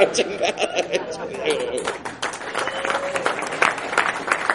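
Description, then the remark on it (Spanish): A crowd applauds to welcome a show segment, with dense, steady clapping mixed with scattered chatter and a bit of laughter, a fairly loud wash of noise lasting a few seconds. “Ahora sí, con ese aplauso les doy la bienvenida a la prestigiosa sección.”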